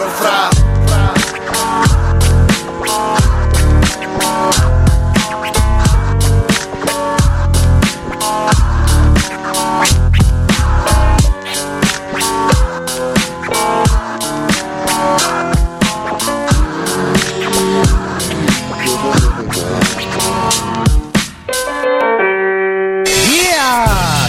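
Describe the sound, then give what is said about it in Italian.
A loud, steady beat-driven track plays throughout, then near the end a DJ turntable scratch cuts in, the sound dropping and warping in pitch before the music resumes. “Senti il Branxone come se l'è screcciato.”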